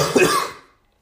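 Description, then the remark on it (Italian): A single harsh cough bursts out loudly and dies away within about half a second, followed by silence. “un po' di tosse ragazzi”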